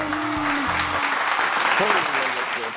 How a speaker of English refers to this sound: applause and everything.